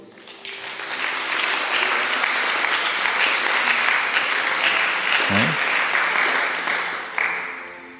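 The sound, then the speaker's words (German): A church audience breaks into loud, sustained applause for God, a dense wash of clapping that swells in and holds steady for several seconds before thinning out near the end, with a brief voice underneath. “Wollt ihr Gott einen großen Applaus geben?”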